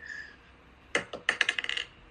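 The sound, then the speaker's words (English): Dice clatter onto a hard surface, a first sharp knock followed by a quick run of rattling bounces that speed up and settle. Crisp, with no voices. “Oh, okay, yeah, the dice isn't hot anymore.”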